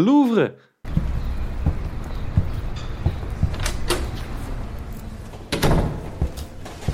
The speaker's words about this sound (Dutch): Gaan wij die deuren naar binnen van dat schitterende museum